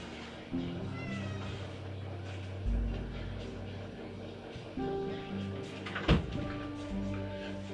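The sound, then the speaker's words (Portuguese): A cat meows several times, its drawn-out cries rising and falling over a low background hum, with a sharp thump partway through. “Meu gato entrou aqui no podcast e é isso que vai acontecer agora.”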